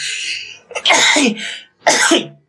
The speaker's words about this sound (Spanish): Y ese soy yo estornudando, perdón.